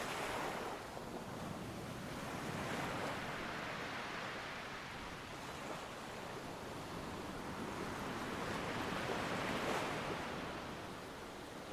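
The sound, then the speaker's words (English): Ocean waves roll and break steadily, swelling in broad washes of surf while a constant wind rushes over the shore. There is no talking, only the continuous roar of sea and wind. “Trying to distance yourself from the sounds of the wind and waves.”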